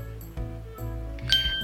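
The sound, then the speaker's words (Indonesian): A fruit vendor's glass chime clinks about three times at a steady pace, each strike ringing on with bright lingering tones; the last clink is the sharpest and loudest. “Aha, ada penjual buah.”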